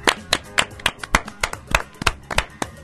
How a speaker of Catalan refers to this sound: Bravo! Bravo, un aplaudiment per ell, sisplau, sisplau.